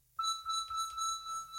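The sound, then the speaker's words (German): A sustained FM synthesizer tone with a bright, metallic, bell-like ring, sounding alone, holding steady for over a second with slight wavering in its upper overtones. “metallisch, kann sehr oft metallisch klingen, wird daher auch sehr gerne verwendet für alles, ähm, was irgendwie so Richtung Emulation von Seiteninstrumenten, Orgeln, ähm, Glocken.”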